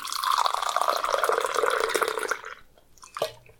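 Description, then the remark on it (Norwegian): More coffee pours steadily into a cup for about two seconds, a bubbling stream that stops abruptly, followed by a single faint drip or clink. “Kan du ha litt mer kaffe?”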